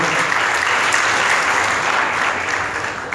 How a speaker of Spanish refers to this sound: Denle el aplauso al Señor esta mañana, por favor.